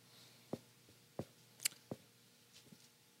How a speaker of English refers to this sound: I love hearing pages turn.